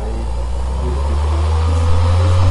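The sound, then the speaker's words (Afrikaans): A small electric motor with an off-center flywheel and variable speed control runs at high speed with a loud, steady, low droning rumble and a faint rising tone, much like road traffic, continuous throughout with no talking. “So hoe vinniger jy hom stel, hoe meer begin hy te klink soos 'n pad wat per actually.”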